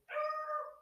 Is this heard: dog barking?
yes